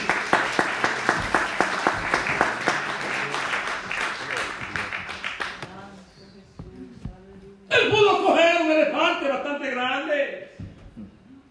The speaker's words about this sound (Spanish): ¡Denle aplauso al Señor. Esto es grande.